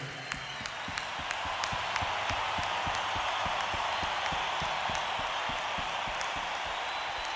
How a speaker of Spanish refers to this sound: Han mostrado una fidelidad infinita, han ido miles de kilómetros a vernos. Vamos a darles un aplauso nosotros a ustedes.